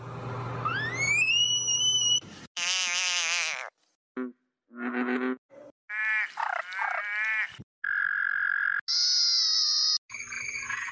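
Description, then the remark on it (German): An African clawed frog (genus Xenopus, family Pipidae), about palm-sized and greenish-grey speckled, from ponds and rivers of sub-Saharan Africa, calls underwater in a run of buzzy, ticking trills and rising whistle-like notes, loud, broken by short pauses, with no voices. “Er ist circa Handteller groß, grünlich-grau gesprenkelt und er klingt so.”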